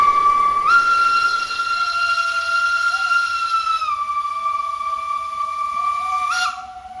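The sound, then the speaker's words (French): A long, breathy whistle mimicking a locomotive's steam whistle, holding a steady chord-like tone for several seconds, dipping slightly midway, then swelling briefly before fading out. “Ça, c'est porté un peu une recherche du souffle, et, comment il peut être modelé, euh, soit euh, par les sonorités de vent, des siffles, jusqu'à arriver à la locomotive euh, au sifflet du train.”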